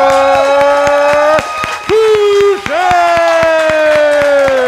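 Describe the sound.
An audience at a trivia match cheers and applauds loudly for a former champion in the crowd, with sustained whooping voices over rapid clapping. The noise dips briefly in the middle, then swells back up and keeps going.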